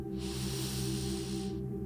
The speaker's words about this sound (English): We're going to inhale through the nose